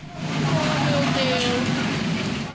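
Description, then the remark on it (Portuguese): A heavy rainstorm with strong wind roars steadily and loudly through the whole stretch over an open-air street market in the Vila Zate neighbourhood of São Paulo's north zone, a dense wash of pouring water and gusts, with faint indistinct voices buried beneath it. “Neste bairro, a Vila Zate, o temporal acompanhado de ventos fortes arrasou uma feira livre.”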